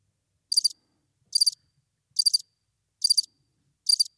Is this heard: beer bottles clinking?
no